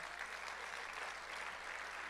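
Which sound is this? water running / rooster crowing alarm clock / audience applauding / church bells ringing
audience applauding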